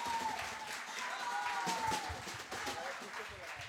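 An audience applauds steadily, with many hands clapping in a dense, crackling wash that holds at an even level for a few seconds. Faint crowd murmur mixes in underneath.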